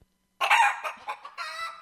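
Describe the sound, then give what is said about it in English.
A crowd of chickens at Europe's largest poultry farm, in occupied Ukraine, where chickens are dying of thirst and starvation because of the war, clucks and squawks loudly, their overlapping calls rising in uneven bursts with a rooster-like crow mixed in, and no voices heard. “the sound the poor of a...”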